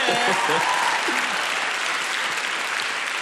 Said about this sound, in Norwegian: Skrevet historie her. en applaus for det. En applaus!